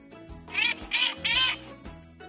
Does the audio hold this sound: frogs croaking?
no